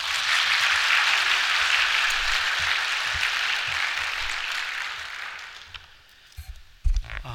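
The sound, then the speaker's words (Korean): Sustained applause from a crowd welcoming a pastor who is about to preach, a dense steady wash of many hands clapping that holds for several seconds, then thins and fades out, followed by a few faint thumps. “우리 박수로 환영하도록 하죠.”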